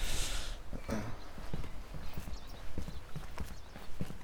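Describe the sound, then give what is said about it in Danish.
A train approaches on a still-operating railway line, on the new bridge from '52: a steady, rhythmic clatter of wheels knocking over the rails, with a rumbling low undertone and a brief hiss at the start. No one speaks. “Og det vi kan høre nu, det er, at der kommer lige et, et tog, fordi jernbanen kører faktisk stadig.”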